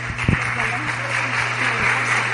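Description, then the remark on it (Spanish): An audience at a business meeting applauds steadily for a couple of seconds as the speaker's wife is introduced, a dense, even wash of clapping with faint voices murmuring underneath and a low electrical hum. “Un aplauso para ella.”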